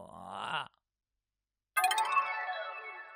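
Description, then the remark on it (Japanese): A short vocal groan, a second of silence, then a bright direct-message notification chime rings out clearly, its tones slowly fading. “んえ ?DM? 誰からってフォローしてない。”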